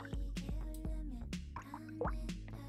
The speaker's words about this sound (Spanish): Ah, pues sí, estoy en una tina pues con agua, yo no sé si ustedes escuchan.